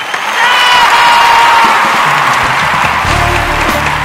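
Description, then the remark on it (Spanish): Loud, sustained applause and cheering from the audience of El Show de la Papaya as a guest is welcomed: dense clapping with whoops over it, holding steady for a few seconds. “Ahora sí, el aplauso es para el señor, el amigo.”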